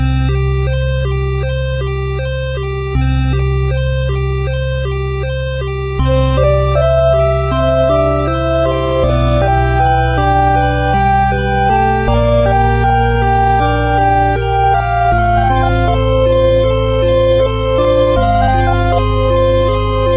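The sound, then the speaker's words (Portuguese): The opening theme of the video game Phantasy Star III: melodic instrumental music with steady sustained bass notes shifting every few seconds beneath bright, repeating arpeggiated figures and a rising lead line, loud and clear with no voices. “Mas ele tem uma música, cara, que é, é, é o tema de abertura e ele foi é, reaproveitado acho que três ou quatro vezes, três ou quatro versões dele durante o jogo.”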